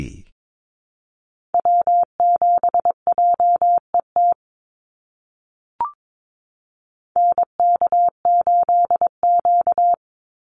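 Two quick bursts of Morse code at 22 words per minute, steady mid-pitched beeps keyed in rapid dots and dashes, each spelling out the callsign of a North American SOTA activator, separated by a pause with a single soft click.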